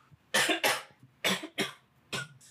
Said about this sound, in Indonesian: nah sorry gue lagi kurang sehat nih soalnya lu nge-vape mulu dari tadi batuk bukan kurang sehat sebenernya. enggak bukan emang dari dari kemarin gue udah batuk-batuk aja padahal vape juga ada kurangin tapi gue butuh nikotin aja sih